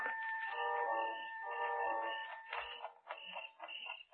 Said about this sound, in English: The sound of the alarm clock we brought with us mingled with that of the crickets outside.